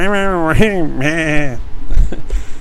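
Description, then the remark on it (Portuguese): A person imitates a goat's bleat as a jingle, with a loud, quavering, nasal voice, two wobbling bleats in quick succession, followed by a moment of mumbled talk and breathy noise. “Olha o bode aí, o bode com, já com a vinheta nova, a vinheta nova do bode.”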